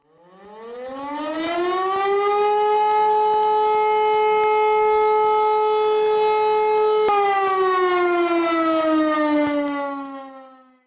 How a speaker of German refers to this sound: Eine Sirene, oder Mariam? Genau, das war das, was die Kanzlerin am Dienstag die gute alte Sirene genannt hat.